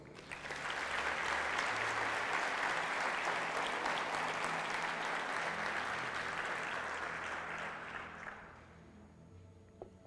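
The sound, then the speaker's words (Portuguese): An audience bursts into sustained applause for the Lord, a dense wash of clapping for about eight seconds before tapering off quickly into quiet. “Aplauda o Senhor.”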